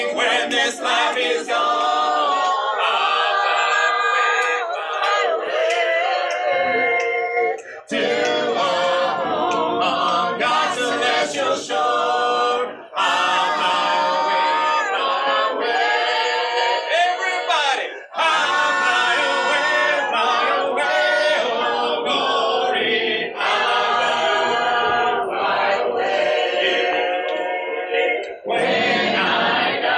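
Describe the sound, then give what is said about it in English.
The Letcher County Shape Note Club leads a crowd in a group sing-along before a weekly bluegrass show, voices singing together in loud, full harmony, holding long sustained notes, with brief breaks between phrases and no instruments or talking. “Before the weekly bluegrass show began, the Letcher County Shape Note Club led the crowd in a group sing along.”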